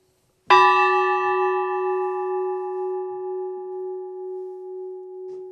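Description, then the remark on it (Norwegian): A single hand-struck medieval church bell, whose strike tone and shape may date it to the 12th century, rings out with a sharp attack, then a long, rich hum of layered overtones that slowly decays and shimmers, with no talking. “Så rent isolert, hvis vi ser på eh, slagringen på den klokka her og formen, så er det ikke noe i veien for at den kan være fra 1100-tallet.”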